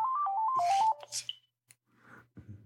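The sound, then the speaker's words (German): A mobile phone rings with a short electronic melody of stepped beeping tones lasting about a second, followed by brief handling noises, clicks and rustling, then near silence. “Du, auf den roten, grünen Knopf.”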